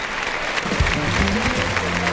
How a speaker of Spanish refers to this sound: 44 años cumple Morante de la Puebla. Cumpleaños feliz. Le toca cuando pasa aquí cerca de la banda de música. Y la fuerte ovación del público, pues lo ha celebrado con dos orejas.